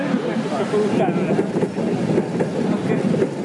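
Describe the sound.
A tram, along with a bus, rolls past, a steady, fairly loud rumbling roar that holds constant for the whole stretch, with indistinct voices faintly underneath.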